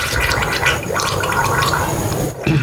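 Loud wet sputtering of a man spitting out a mouthful of a snack made with hot pepper, a continuous gurgling spray that breaks off briefly near the end before starting again.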